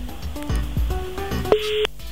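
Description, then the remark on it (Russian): A telephone busy tone after a caller's call to a live broadcast phone line drops: a steady mid-pitched beep sounds, cuts off, then starts again in a regular on-off pattern, following a moment of garbled line noise. “К сожалению, слом, э, сорвался звонок”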